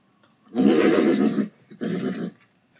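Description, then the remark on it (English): Ponies on a farm whinny in two loud bursts, a long shrill neigh followed by a shorter one after a brief pause, with no talking. “All right, ponies.”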